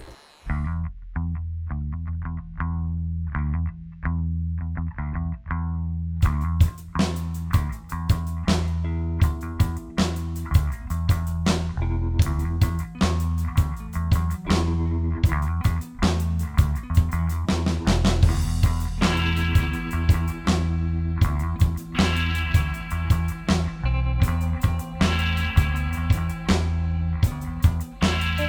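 Rock band music plays with no vocals: a chorused, effects-laden electric guitar opens alone, then drums and bass enter around six seconds for a steady, driving groove with crashing cymbals.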